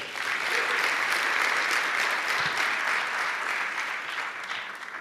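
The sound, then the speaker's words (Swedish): Steady, dense applause from a church audience as a man is called up to help with an illustration during a sermon, a continuous wash of many hands clapping at an even loudness for about five seconds, tapering only slightly at the end. “Ska vi ge honom en stor applåd?”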